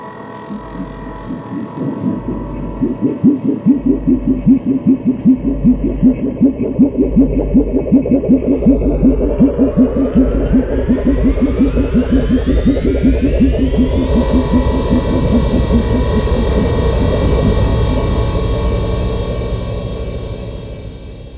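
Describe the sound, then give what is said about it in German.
A synthesized alien spaceship sound built from a plastic disc and a Lego plate with a thick sub-bass underneath, synths added for thickness and the alien character: a loud, steady, throbbing low drone with rapid pulsing, while an eerie tone sweeps steadily upward for about fourteen seconds, then holds and fades. “Die Synthes haben wir nur zum Anfetten und für den außerirdischen Klang verwendet.”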